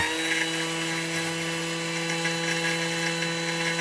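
A Thermomix food processor whirring at high speed on setting 10, pulverizing sugar into powdered sugar, a steady, loud motor whine with a gritty, hissing roar that holds constant throughout, with no talking.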